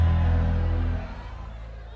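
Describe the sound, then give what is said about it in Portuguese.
An audience shouts together in a loud, sustained roar that holds for about a second and then quickly fades into a lower, murmuring crowd sound, at the Advec church in Alphaville. “Eu posso ouvir um grito daquele tamanho de novo, mais uma vez.”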